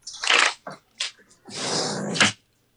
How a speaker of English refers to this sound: Let me close my windows. Like these fucking kids and like dogs just started barking